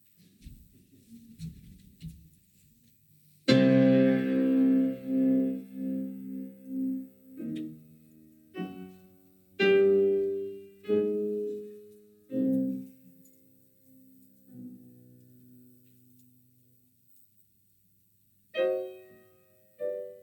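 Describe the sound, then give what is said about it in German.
After a brief faint rustle, a Korean Yang Chang grand piano plays the slow, sparse opening of a Mozart fantasia: deep, resonant notes and chords struck one by one, each ringing out into pauses. “bin ich jetzt kurz neugierig, wie das auf diesem koreanischen Yang Chang äh, Flügel klingt und würde gerne den Anfang ausprobieren.”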